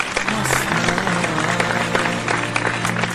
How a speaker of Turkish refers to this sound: Orada olduğunuz için hepinize teşekkür ediyorum. Kocaman alkışlar sizlere gelsin.